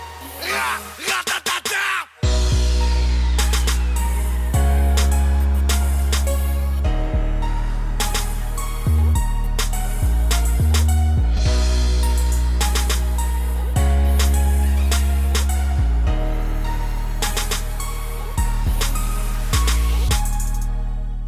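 A newly released French rap single plays loudly, built on heavy, booming bass notes and a steady, punchy beat, kicking in after a brief, choppy burst of sound in the opening seconds.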